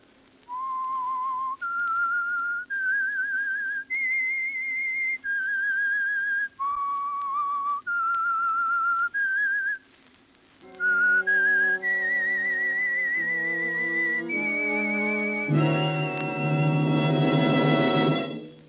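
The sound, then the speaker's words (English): A lone whistler carries a slow, eerie theme tune of sustained, sliding notes, clear, before a fuller band of instruments takes up the melody and swells toward the end; the whistled signature theme of the Signal Oil radio program The Whistler. “That whistle is your signal for the Signal Oil program, The Whistler.”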